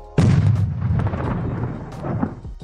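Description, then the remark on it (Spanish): A single loud cannon blast from a pirate ship atop the stands at Raymond James Stadium, fired when the home team scores, booms out abruptly, its deep rumble lingering and slowly fading over a couple of seconds, with no voices present. “Cada que el equipo local anota, se escucha un disparo de cañón como este.”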